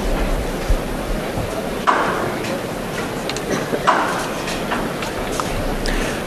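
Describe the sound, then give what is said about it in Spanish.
Sharp wooden knocks from a hammer signalling the procession float bearers at the corner of calle Gravina and calle Canaleja, heard from a window in the distance, struck a few times at irregular intervals over a steady background murmur of crowd noise. “justo en, la, justo en esquina, en un cortejo que ya ha avanzado, se escucha el martillo.”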